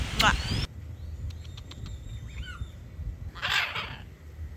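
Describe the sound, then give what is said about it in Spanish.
Birds call outdoors, a harsh burst opening the scene, then faint scattered chirps and clicks, and another loud squawking burst near the end over a low background rumble. “Hay celos entre los pájaros también.”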